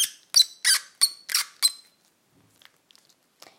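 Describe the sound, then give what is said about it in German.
A large stone monster toy figure, moss-covered with three toes on each foot and four fingers, squeaks six times in quick, even succession, fairly loud, followed by a few faint handling clicks and rustles; no one speaks. “Das auch, also es ist einfach ein großer Typ, hat an jedem Fuß nur drei Zehen, ist mit Moos bewachsen, hat, in, hat nur vier Finger, quietscht bei uns.”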